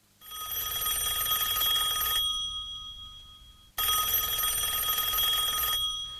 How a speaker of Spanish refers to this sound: Y ahora sonando el móvil. Bueno, este puede esperar.